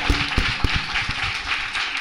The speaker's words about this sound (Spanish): ¡No te das un aplauso.